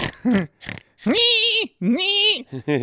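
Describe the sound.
A human voice imitates a pig, making a string of squealing, nasal oinks: short grunts followed by two long, strained squeals, loud, with no other talking.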